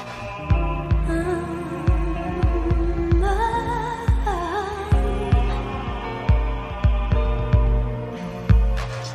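An instrumental Cantopop song intro with a steady, thumping kick-drum pulse under sustained synth chords and a gliding melodic line; no voices.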